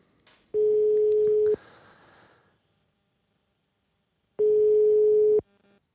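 An outgoing call's ringing tone: two loud, steady electronic beeps, each about a second long, separated by a few seconds of near silence, with faint clicks and room noise between them.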